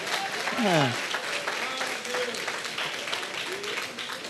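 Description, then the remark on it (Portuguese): A church audience applauds for Jesus steadily throughout, dense crackling claps at an even loudness, with a brief voice calling out near the start and a few faint cheers mixed into the clapping. “Pode aplaudir a Jesus. Ah, aplauda Jesus.”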